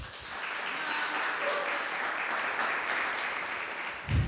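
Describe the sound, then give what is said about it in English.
A morning audience applauds steadily for two earlier speakers, a dense wash of many hands clapping at once that holds for several seconds before fading out. “so let's, let's give another hand for them.”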